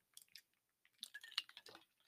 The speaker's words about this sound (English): again, as I take another sip